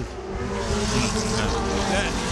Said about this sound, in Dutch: deze uitzending eh, wordt op door prachtig eh, geluid hè, van, de, van de auto's die voorbij komen race over het circuit.